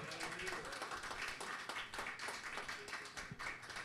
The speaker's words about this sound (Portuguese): da Igreja Oceano da Graça, que será recebido com uma calorosa salva de palmas.